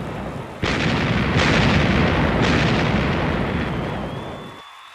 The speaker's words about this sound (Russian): под оглушительно восторженные крики собравшейся толпы жителей и пушечную канонаду, корабли эскадры Медичей торжественно бросили якорь в водах близ Марселя.